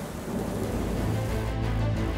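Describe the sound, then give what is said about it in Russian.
Heavy rain pours down in a steady, dense hiss, with a deep, continuous rumble of thunder underneath throughout the short stretch, during the 9–10 July downpours in northern Telangana state, India. No voices are heard. “9 и 10 июля проливные дожди затронули жизни жителей северной части штата Телангана.”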